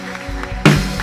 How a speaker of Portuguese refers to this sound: E aplauda ao Senhor o mais forte que você puder.